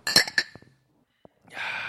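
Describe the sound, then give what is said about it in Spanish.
Glasses clink together twice in quick succession in a toast, bright with a short ringing tail, followed after a pause by a soft breathy rush of noise. “Y antes de despedirnos. ¡Salud!”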